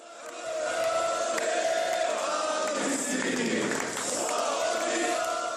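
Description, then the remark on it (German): Hundreds of supporters cheer and shout continuously in the airport terminal in Zagreb in 2014, welcoming an arriving man like a hero before several camera teams; a dense roar of many voices that stays loud throughout with occasional louder swells. “Bei seiner Ankunft am Flughafen in Zagreb im Jahr 2014 wurde er von mehreren Kamerateams und hunderten jubelnden Anhängern im Terminal empfangen wie ein Held.”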